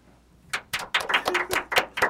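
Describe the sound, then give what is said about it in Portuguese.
Scattered applause from a show's studio audience breaks out after a brief pause, a run of sharp, bright claps in an uneven but steady rhythm, fairly loud and with no voices over it. “Aplausos!”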